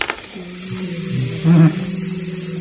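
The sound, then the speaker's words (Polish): A voice hums a steady, droning buzz for a couple of seconds, swelling louder briefly in the middle, imitating the buzzing of an approaching iron wind in a Polish Radio Theatre production. “Słyszysz coś w rodzaju bzyczenia.”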